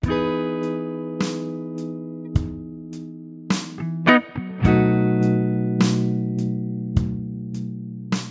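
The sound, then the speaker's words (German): A steady, buzzy electronic tone repeats a short melodic phrase while a drum beat built from bass drum, hi-hat and snare samples lands sharp hits on a regular beat about once a second, following the tempo of the phrase, loud, with no one speaking. “Daraus ergibt sich dann ein Schlagzeugbeat, der genau dem Tempo folgt, mit dem ich die Phrase vorher eingespielt habe.”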